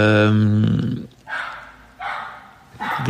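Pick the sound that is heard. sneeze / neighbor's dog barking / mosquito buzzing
neighbor's dog barking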